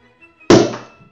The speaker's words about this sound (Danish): jeg er gået efter en, øh, en lidt bredere bombe i dag, men ikke øh, den selv samme højde. Det er 20 gange 30 øh, cm, okay. så den har lidt mere puff. Øh, en, en, den siger puff? Ja. Så øh, vi, øh, vi hører lige poppet fra flasken.